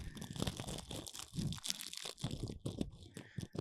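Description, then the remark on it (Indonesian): Crunching of crisp keripik chips being chewed while eating, a dense run of sharp crackly bites and crinkles filling the whole stretch without pause, loud. “Ini kayaknya podcast belum paling berisik dah Kenapa? Makan keripik”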